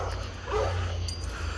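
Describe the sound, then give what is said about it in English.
A dog barks a couple of times at night, shortly after rain, muffled and fairly faint, over a steady low background hum. No one speaks. “this dog gonna shut the fuck up.”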